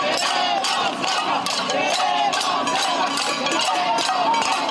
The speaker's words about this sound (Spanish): El ruido de las cacerolas y consigna retumbó frente al recinto gubernamental protegido por policías.